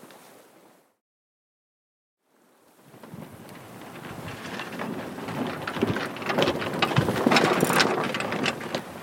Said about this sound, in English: So if you look, looking towards the city, looking towards Dublin, it's grey, uh, squally weather, white tops in the waves, good strong wind blowing that spray off the top of the waves, and dark and forbidding.